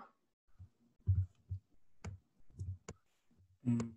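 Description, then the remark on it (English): A series of sharp mouse clicks, spaced irregularly over a few seconds, with soft low thumps and handling noise between them, as someone clicks back and forth while viewing a route on a map. “I'm, I'm actually clicking back and forth.”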